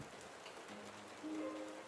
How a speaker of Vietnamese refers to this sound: Thật ra trời không mưa to lắm